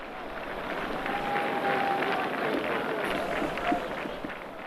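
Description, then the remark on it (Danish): A large outdoor crowd of about 70,000 at a demonstration in Leipzig, East Germany, roars in a steady, dense wash of many voices, its mass shouting carrying on without pause, with a few sustained tones rising above the din. “Altså det er i Leipzig, og nu kan vi godt sige, at det var måske punkten, der satte det i gang, den østtyske punk, men der var jo trods alt ikke, jeg tror, der er 70.000 til stede ved denne her demonstration.”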